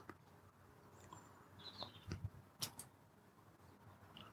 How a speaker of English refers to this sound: As lovely as it is sat here in the yellow sleeping bag in the greenhouse, listening to the bird song.